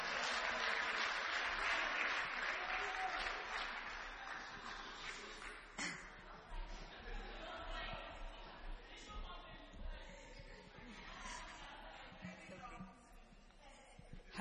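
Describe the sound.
An audience claps in a dense burst of applause that is loudest at the start, then gradually thins out and fades, with some murmuring crowd voices mixed in.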